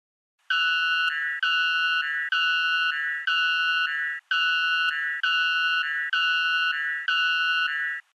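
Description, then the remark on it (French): A Pew personal safety alarm, mimicking the call of the white bellbird, blares a shrill, bird-like two-note electronic call, repeating eight times in a steady rhythm, loud, with no voices. “Ça vous dit qu'on écoute maintenant l'alarme Pew, la fameuse alarme Pew”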